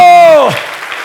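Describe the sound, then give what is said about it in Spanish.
Loud, steady audience applause given to the Lord, a dense wash of many hands clapping at once, opened by a sustained voice sliding downward in pitch over it before the clapping carries on alone. “Dele fuerte ese aplauso al Señor.”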